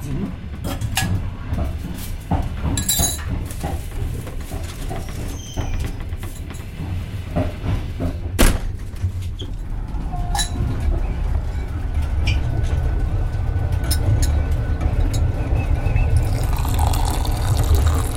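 Black tea is poured from a kettle into cups on a train to Vilnius, a steady trickle of liquid with a few light clinks, all over the constant low rumble of the moving train.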